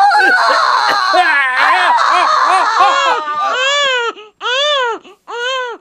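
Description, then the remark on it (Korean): A newborn baby wails loudly just after being born, first tangled with overlapping voices and strained cries, then in three clear, rising-and-falling bursts separated by short breaths. “그렇게 둘이 비명을 지르다 보니 사모님의 치마 속에서 아기가 나오게 되고 아버지가 중, 중대장님을 대신해 탯줄을 잘랐는데요.”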